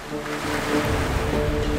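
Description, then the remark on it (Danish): Waves wash steadily onto the beach at Amager Strand with a constant broad roar, a low rumble, and a faint humming drone underneath; the surge swells slightly partway through. No voices. “og jeg, her på Amager Strand.”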